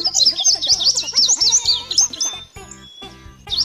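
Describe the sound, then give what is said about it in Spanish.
A small bird chirps rapidly and repeatedly in high, bright twittering bursts, clear, with a brief pause near the end before the chirping resumes. “¿Qué es eso? ¿Qué pasó? Nuevamente el pajarito.”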